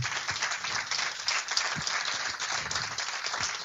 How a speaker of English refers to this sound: Our finalists was also fantastic. And I'm, I am going to embarrass them. I am going to ask them to come up here as well because they deserve a round of applause.